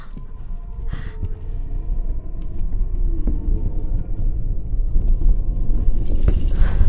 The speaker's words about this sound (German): Die Wände geben nach. Schnell, renn nach oben, das ist ein Erdbeben.